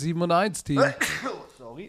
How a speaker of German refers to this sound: Gesundheit